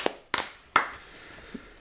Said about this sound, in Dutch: Applaus.